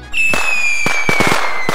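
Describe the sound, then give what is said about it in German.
Fireworks going off: a high whistling streak rises and holds, while several sharp booms and crackling bursts punch through at irregular intervals, loud and with no one speaking. “Ein ordentliches Feuerwerk gibt es ja im Europapark bei jedem Flug im Voletarium.”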